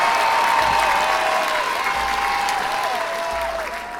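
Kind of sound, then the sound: crowd, applause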